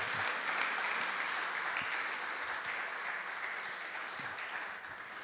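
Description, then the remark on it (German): Steady audience applause at a church gathering, a dense wash of many hands clapping at an even level for about five seconds, easing off slightly at the very end, with no voices over it, given for four people who were recently baptized. “Nochmal ein Applaus für die Geschwister.”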